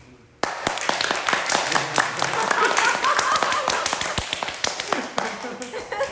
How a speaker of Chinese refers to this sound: 谢谢你啊，你的分享如雷贯耳的掌声，感谢主。